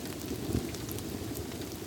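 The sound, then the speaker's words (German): Heavy rain pours down steadily, a dense, continuous hiss and patter with no pauses, fairly loud and unbroken throughout. “Wenn es hier regnet, regnet es nämlich nicht nur von oben, sondern auch von rechts, von links, vielleicht sogar von unten.”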